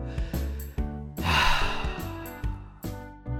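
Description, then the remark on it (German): A deep, audible breath drawn in and let out, airy, over soft sustained background music. “Dann macht es euch bequem, zieht euch die Decke bis zur Nasenspitze hoch, atmet nochmal tief durch, so.”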